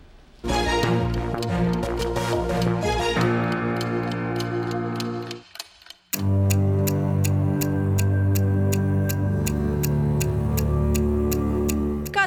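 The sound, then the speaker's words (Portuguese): A steady clock tick-tock beats out evenly spaced, crisp ticks over swelling, tense orchestral music, pausing briefly midway before the ticking resumes with a heavier, sustained musical bed. “cada vez que o ponteiro do relógio se move, o prazo para encontrar criminosos foragidos diminui.”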